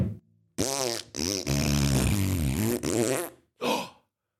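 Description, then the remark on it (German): A loud, drawn-out string of farts: several bursts with a wavering, buzzy pitch, then a short airy sputter after a brief pause. No one speaks. “Da hatte jemand ganz schön viel Schiss in der Hose.”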